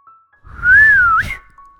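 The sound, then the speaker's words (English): A single sharp human whistle by a farmer calling his dog, loud, holding a steady note for about a second before ending with a quick upward flick, with no talking around it. “And with that, he let out a whistle.”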